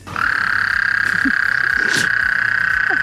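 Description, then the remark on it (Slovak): A chorus of mating common frogs keeps up a steady, unbroken purring drone from start to finish, with a few faint lower croaks and clicks scattered underneath. No one speaks. “ešte by to chcelo aj nejaký zvukový dôkaz ku všetkému ako bonusový materiál, že ako to teda znie, keď hm, samička skokana hnedého nerobí drahoty, má chuť a pristane na milovanie.”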